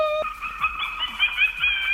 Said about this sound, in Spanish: pues ahora que viene Halloween, las compañías que hacen los timbres han desarrollado tonos para los timbres con motivo de Halloween.